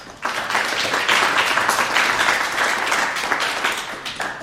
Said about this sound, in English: So that also deserves a round of applause, please.